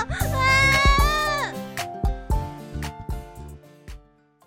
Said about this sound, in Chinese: 孩子在卖场发出扰人又刺耳的声音，周遭的人对我投向异样的眼光。